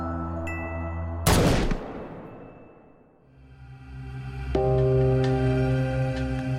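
A single loud gunshot, the first shot fired, cracks over a low, droning musical tone, its echo trailing off for a couple of seconds before the music swells back in.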